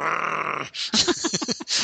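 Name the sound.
voice imitating a growl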